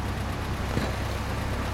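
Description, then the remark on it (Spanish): A steady, low engine hum fills the space, like a car idling heard from inside the cabin, in the car park of Plaza Mayor in Madrid, with a constant rumble and no voices. “nos acabamos de subir a un coche en el parking de la Plaza Mayor de Madrid.”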